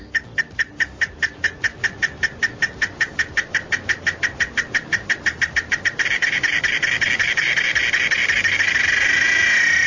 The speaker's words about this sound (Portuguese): caso dos grilos e, e, vários grupos, né, de insetos aí